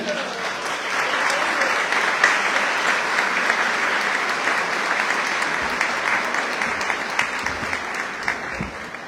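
Sustained audience applause, a dense steady patter of many hands clapping at even loudness for several seconds with no voices over it.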